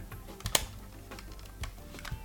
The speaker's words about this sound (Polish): Po prawej stronie mamy eject, eject działa w ten sposób, że przesuwa się taki, taki suwak i on wraca na swoje miejsce.